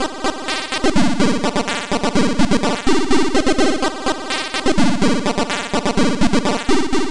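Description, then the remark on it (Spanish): A very fast chiptune arpeggio, a technique iconic of the chiptune movement and of many video games of that era: bright, buzzy square-wave notes cycle rapidly up and down in a relentless flutter, the whole pattern shifting pitch every second or so, loud with no voices. “la arpegiación, y en este caso muy rápida, que se ha convertido en un sonido icónico del movimiento chiptune y en cualquier caso de muchos videojuegos de la época y posteriores con estética de la época.”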